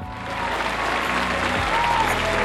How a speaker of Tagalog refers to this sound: Kasi nag-joke siya na parang, oh, lagyan natin ng ano, yung fake na palakpak na parang sa noontime shows, yung... Canned applause? Tipong ganito ba?